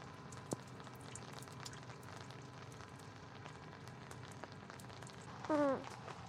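Steady rain patters on hard surfaces nearby, a dense crackle of small drops with occasional louder splats, and a brief high vocal squeak near the end.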